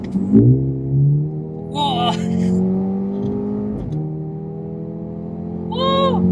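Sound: four-cylinder car engine revving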